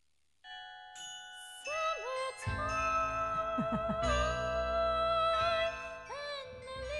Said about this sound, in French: Voilà, voix et cloche. Voilà, c'est pas beau